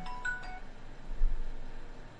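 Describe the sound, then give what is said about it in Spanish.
A faint, brief electronic phone ring chirps a couple of quick tones near the start, then fades into a low background hiss with no talking. “Y ahora me estaban llamando por aquí por teléfono.”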